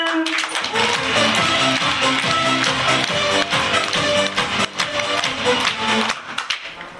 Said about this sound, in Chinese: 好的，请举手，掌声加欢呼声。